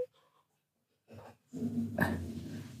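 A dog growls in the background in a low, sustained rumble after a brief shuffle, with a sharper huff partway through. No one speaks.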